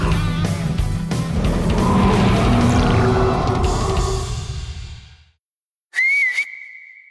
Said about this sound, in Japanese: 森の中におなじみの口笛が響き渡りましたティラノサウルスのバクの登場です